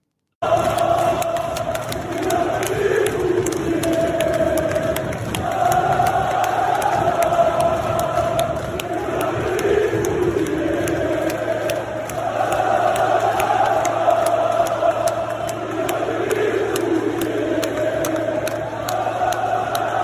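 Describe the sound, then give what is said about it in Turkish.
A large stadium crowd of Fenerbahçe fans chants "Vladimir Putin" in unison after a Dinamo Kiev player scores and celebrates, a loud rhythmic refrain rising and falling in repeated phrases for the whole stretch, with a dense roar of voices underneath. “Fenerbahçe taraftarı Dinamo Kievli futbolcunun attığı golden sonra abartılı şekilde sevinince Vladimir Putin tezahüratı yapıldı.”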